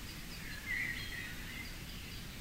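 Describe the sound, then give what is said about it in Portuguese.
Soft birdsong: a few faint chirps from some birds in a garden before a library entrance, in mild temperature, drift over a steady outdoor background hush and low rumble. No one speaks. “A temperatura agora é amena e alguns pássaros cantam suavemente.”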